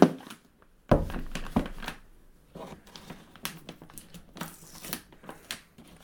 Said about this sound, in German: öffnet jetzt mal den Tesafilm an der Seite.